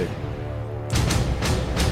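A low, sustained synth drone gives way to heavy, clanging metallic percussion hits in a steady, ominous rhythm: the theme music from the film Terminator, played loud.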